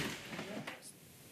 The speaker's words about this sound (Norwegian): Jeg prøver å få inn stolen her. Men nå, ja, nå går det.